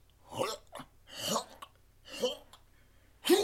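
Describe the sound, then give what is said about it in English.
A voice imitates a creature hacking up a paper catalog: four rough, retching cough-like bursts in an uneven rhythm, fairly loud, the last one sharp and strained. “and just coughs up a paper kind of um, catalog that lands”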